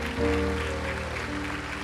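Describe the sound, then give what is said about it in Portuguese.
A church audience applauds the Lord with a steady, dense wash of clapping that holds at an even level for the whole moment, while sustained keyboard tones hum underneath. “Aplauda o Senhor, querido.”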